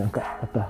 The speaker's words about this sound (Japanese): ちょっと遠くの方で犬が鳴いてますね、吠えてますね。